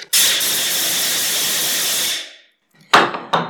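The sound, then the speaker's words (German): A large Purim noisemaker rattles in a loud, dense, continuous clatter for about two seconds and fades out. After a short pause come two brief, sharp bursts of rattling. No one speaks. “Die richtigen großen Purim-Ratschen klingen allerdings so.”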